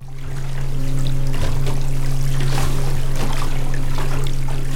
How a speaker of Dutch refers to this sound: Wat horen we nu precies? Dat is een, eh, ja, een windturbine die aan het draaien is en we horen de onderwatercomponent. Uh, onderwatergeluid door werkende windturbines wordt niet dadelijk als een geluidsprobleem eh, gezien.